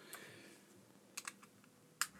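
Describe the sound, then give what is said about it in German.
A charging cable being plugged into a Mac laptop: a few sharp plastic clicks and taps spaced irregularly over a couple of seconds, with a faint hiss between them and no one talking. “Warte, ich stöpsel dich mal hier ran. Oh, Entschuldigung für die Geräusche.”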